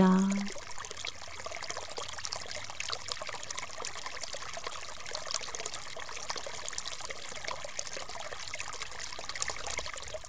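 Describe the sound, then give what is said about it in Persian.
Steady rushing and trickling of flowing river water, continuous, with a bright splashing texture throughout and no clear voices. “سیب کال قل خورد و رفت و رفت و رفت تا به نزدیک رودخونه رسید”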